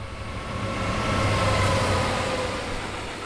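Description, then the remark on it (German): A freight train rattles past, a steady rumbling clatter that swells and then eases slightly over a few seconds, with no voices present. “Mich erfrischt und erfreut es, wenn der Güterzug vorbeirasselt.”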